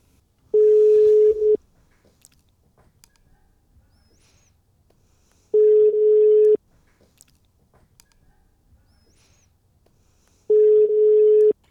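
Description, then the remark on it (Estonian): A phone line's ringback tone while placing a call to a doctor: three steady, medium-pitched beeps, each about a second long and spaced roughly five seconds apart, heard clearly with near silence between them. “väga hea meel teile helistada.”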